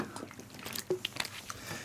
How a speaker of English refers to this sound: Um, I just have a sip of water.